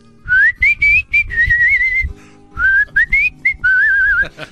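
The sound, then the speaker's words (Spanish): A person whistles a wavering, tuneful melody while ironing clothes, in two short phrases of quick rising and sliding notes separated by a brief pause, over a low rumbling background. “Y yo ahí estaba planchando la ropa y me metí en el papel, empecé a chiflar.”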